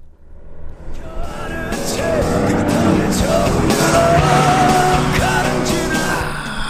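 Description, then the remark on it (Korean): A car passes alongside on the road with its window open and music drifting out, a muffled male singing voice riding over steady road and engine noise that swells in quickly and eases off slightly at the end. “우리가 도로를 신나게 달리고 있는데 옆에 차가 지나갑니다. 그 차에서 듣고 있는 노래가 뭔지 맞춰주시는 거예요.”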